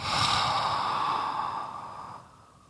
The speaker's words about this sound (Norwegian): Slippe kjeven mot brystet og puster ut gjennom en åpen munn.